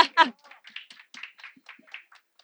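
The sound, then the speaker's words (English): A short burst of applause: a loud whoop at the start, then scattered, uneven clapping from a few people that stays fairly light and fades out. “Uh, and yes, let's give, a, give you a round of applause.”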